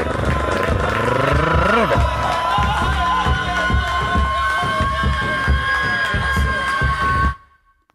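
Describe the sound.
A mass of voices shouting and chanting together like tribal battle cries, loud and dense with sustained wailing tones, holding steady for about seven seconds before cutting off abruptly.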